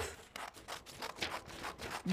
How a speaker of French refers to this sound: découpent le poisson et ensuite, alors je découpe vite, vite, vite. On découpe le poisson.